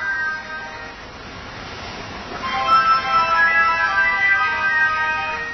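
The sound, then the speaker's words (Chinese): A telephone rings with a steady warbling electronic tone, bright and fairly loud, growing stronger after a softer start and continuing without pause. No one speaks over it. “来电话了，来电话了。”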